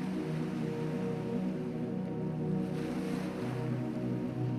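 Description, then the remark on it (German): A steady wash of sea water rolls against the shore at Mont Saint-Michel, France, as the tide goes out, a continuous low rumbling surge with faint hissing on top, constant in level throughout with no voices. “Langsam zieht sich das Meer zurück.”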